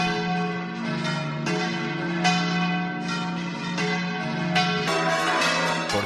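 Church bells peal continuously in the towns and cities of Extremadura, Spain, on Holy Monday, 29 March, at 11 a.m., a dense overlapping clang of strikes roughly every second with rich ringing overtones, loud with no voices.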